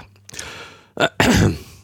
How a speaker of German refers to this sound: Wenn du, während du noch lautstark ins Mikrofon oh, hustest, kann ich auch genau. noch hier so ein bisschen rumkramen.